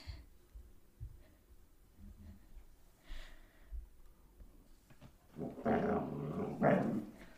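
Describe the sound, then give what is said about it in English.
The dog Kerberos growls low and rumbling, then breaks into a couple of loud snorts and huffs toward the end, with no voices present. “Kerberos, please, please don't. You're such a good boy.”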